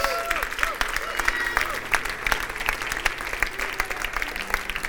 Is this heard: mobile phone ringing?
no